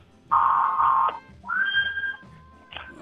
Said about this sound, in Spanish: Y que suene esa sirena, por favor.